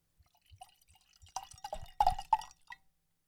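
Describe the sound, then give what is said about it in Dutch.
Wine poured into a glass during Het Glas Gevuld, the wine programme on Good Life Radio, starting with faint drips and building into a few quick gurgling splashes before trailing off. No one speaks. “Wat eh, heb je nu van moois eh, ingeschonken?”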